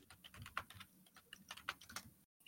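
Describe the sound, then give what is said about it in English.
Rapid, uneven clicking of a mechanical computer keyboard, crisp, with sharp individual keystrokes in bursts and no voices, ending abruptly in a brief moment of silence. “Yeah, we heard you clicking. It's all clickety good.”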